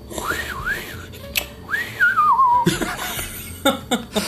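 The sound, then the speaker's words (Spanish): A person whistles a wavering, eerie tone that swoops up and down in two long glides, mimicking a howling wind, followed by a few short breathy bursts. “El viento.”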